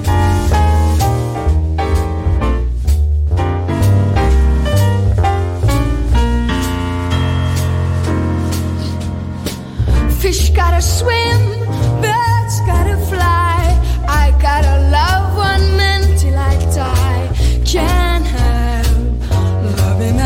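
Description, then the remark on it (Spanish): A song from an album released in 1990 plays loudly and continuously, with steady bass and sustained chords; after a brief dip midway, a singing voice with vibrato comes in over the band. “Vamos a escuchar, como dijimos anteriormente, el disco …, lanzado en 1990.”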